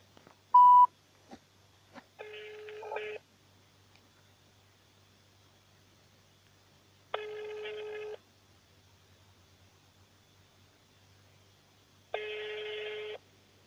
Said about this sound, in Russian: Так, звоним в деловой а, в Бийске рабочий. Телефон 317-003.